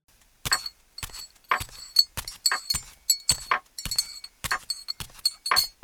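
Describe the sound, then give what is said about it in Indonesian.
Cups and spoons are handled while coffee is prepared: a steady series of bright ceramic clinks and taps, about ten sharp knocks in an uneven rhythm with no talking. “Oh ya, gue siapin kopi dulu ya.”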